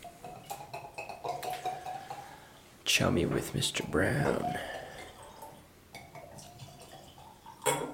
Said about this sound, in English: So it is a special bottle that I'm uh, that I saved for the podcast, and we're gonna pour a little bit and see how it is.